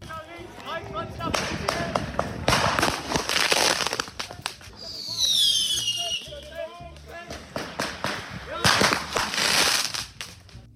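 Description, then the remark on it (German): Firecrackers bang and crackle in rapid, irregular bursts, loud, with a shrill whistling rocket rising midway and voices murmuring in the background. “Der Klimaaktivist darf nach Herzenslust knallen und ballern.”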